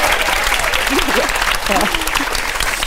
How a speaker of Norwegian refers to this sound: Nei, vi må klappe for det!